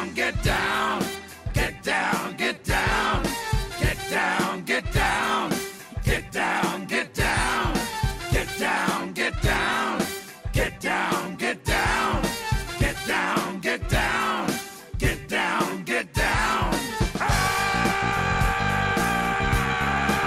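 A loud, driving funk track with punchy horns, a steady groove and gruff chanted vocals, playing continuously and up close with no one talking over it.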